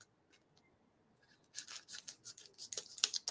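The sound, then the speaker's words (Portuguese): Quiet rustling gives way to a run of crisp scissor snips slicing through a crinkly plastic chocolate wrapper, the cuts coming in quick irregular bursts with no talking. “Eu tenho que puxar aqui, mas não, não tá dando. Vai na tesoura mesmo, vai.”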